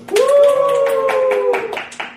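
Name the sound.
applause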